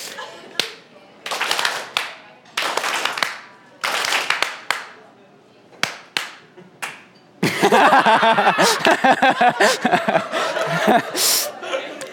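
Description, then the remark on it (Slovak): An audience claps in short, ragged bursts of quick claps separated by pauses during a group clapping exercise, then breaks into loud laughter and overlapping chatter with scattered claps over it. “Prosím vás, tleskneme čo najrýchlejšie trikrát po sebe.”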